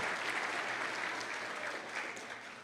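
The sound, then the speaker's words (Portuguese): An audience applauds the name of the Lord in a steady, dense wash of clapping that holds at an even, fairly loud level for a few seconds, with no voices standing out. “Celebre o Senhor, dando a Ele toda a honra e toda a glória, aplaudindo o nome do Senhor.”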